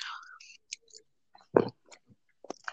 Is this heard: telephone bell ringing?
no